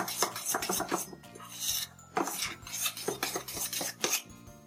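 A spoon scrapes and clinks against a bowl in quick, repeated strokes, a steady rhythmic mixing of batter that will be cooked in a microwave, with no one talking.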